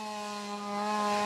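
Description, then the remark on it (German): A chainsaw runs steadily with a buzzing, harmonic engine whine, its grinding cut rising slightly in loudness toward the end, with no voices present. It is cutting through ice in Russia to reach the water beneath for ice swimmers. “Zunächst sind die Motorsägen und Spitzhacken dran.”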